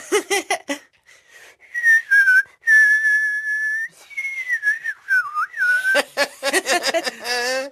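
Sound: person whistling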